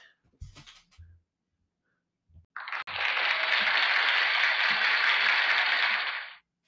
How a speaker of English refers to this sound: Wow, guys, thank you so much for that applause.